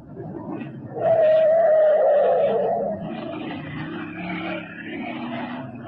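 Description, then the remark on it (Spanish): A small car's engine revs up loudly with the accelerator pressed to the floor and accelerates away through empty streets, its whining drone holding steady before easing into a fainter, rumbling hum. No one speaks. “El pequeño auto avanzó por las solitarias calles y prontos azules ojos de Calimán descubrieron al pequeño Solín en una esquina.”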